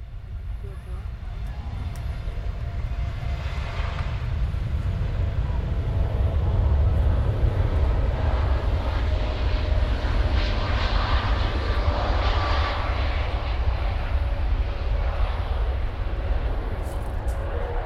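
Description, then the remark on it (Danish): An airplane roars overhead with a loud, continuous low rumble that swells slightly midway and holds steady for the whole stretch, with no other sounds standing out. “Og selvfølgelig er der dage, hvor når det nu begynder at blive regnet tung i luften og et eller andet, så larmer flyverne altså lidt mere, end de, end de gør nu.”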